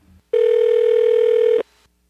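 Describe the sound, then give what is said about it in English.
A single ringback tone from a phone call being placed to the Google Nest support line, a steady, loud electronic purr lasting just over a second, heard alone through the line before cutting off into quiet. “And I just decided that I would call Nest, to ask my questions, and try to speed things up. And this is what I heard.”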